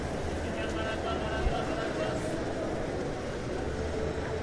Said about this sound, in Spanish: Llovizna en Bogotá. Tal vez a mi derecha puedas oír al señor que vende los paraguas.